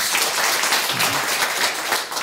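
A crowd applauds steadily, many hands clapping in a dense, even wash of sound that stays loud for a couple of seconds without any voices.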